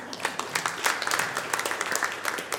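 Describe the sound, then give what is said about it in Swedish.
An audience applauds steadily, many hands clapping together in a dense, even patter of crisp claps, moderately loud and continuous throughout, with no voices over it. “Det är lite svårt att säga exakt, men ja, det är värt en applåd.”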